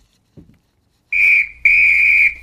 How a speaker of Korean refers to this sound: 이 소리입니다. 오늘 호루라기 소리예요.